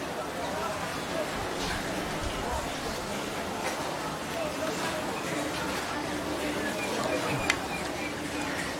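Busy hawker centre (common people's eatery) food court ambience: a steady wash of overlapping crowd chatter with scattered clinks and clatter, including a sharp tap near the end, evenly loud throughout with no single voice standing out.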